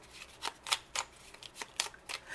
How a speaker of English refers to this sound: So we just take our deck, we shuffle,